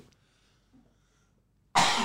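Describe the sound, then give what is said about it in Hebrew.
A single sudden, loud sneeze bursts out after nearly two seconds of near silence, a harsh, breathy blast that stays strong to the end. “סליחה. בריאות.”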